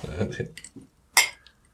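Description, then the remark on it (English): A single bright glass clink rings out with a short shimmering tail, following a moment of voices talking, like glasses touched together in a toast. “I'm relaxed now. Cheers. Cheers. Cheers.”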